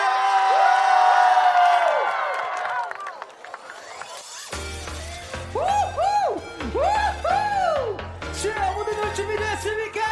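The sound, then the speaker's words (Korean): A large audience cheers and screams loudly for several seconds to open the first stage performance of a show, then the noise thins as a song with a steady beat and melody starts up over the fading crowd. “자, 여러분의 뜨거운 함성으로 첫 번째 무대 열어보겠습니다.”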